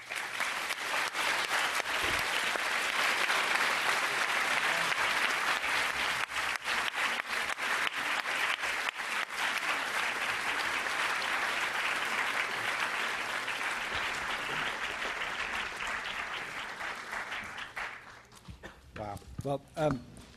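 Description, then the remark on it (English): A large audience claps steadily for around eighteen seconds after a speech, a dense, even wash of applause, which then tapers off as a single voice starts speaking at the end. “So, um, and judging from the applause too.”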